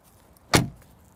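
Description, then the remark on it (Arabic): A single heavy G-Class car door slams shut with a solid, metallic thud that decays quickly, surrounded by quiet background and no talking. “ما كان فيني افتح الباب وسكره عشان اسمعكم الصوت احلى شيء بالجي كلاس هالاصوات اسمع”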